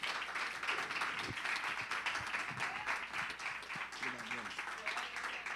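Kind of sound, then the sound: crowd, audience applauding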